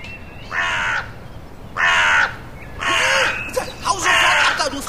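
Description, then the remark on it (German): A crow caws four times in a steady, evenly spaced series, each call a loud, harsh, rasping note about half a second long, clear over a quiet background, while the crow is at someone's cookies. “Die Krähe kann was erleben.”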